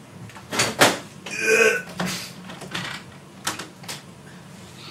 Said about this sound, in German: Eigentlich ist es immer kühl bei mir in der Wohnung, aber ich mache mal das Fenster ein bisschen auf.